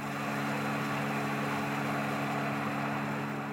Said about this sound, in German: Das hier, das kennt ihr vielleicht schon von vorhin, das ist das Lüftergeräusch eines Computers. Und wenn das während der Podcastaufnahme anspringt, klingt das ungefähr so.